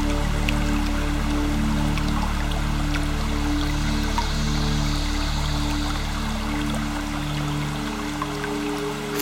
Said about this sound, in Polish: niech ten mały strumień spływa z jednego progu skalnego na drugi. I kiedy tak spada z górnego stopnia, rozpyla się w gęstą mgłę.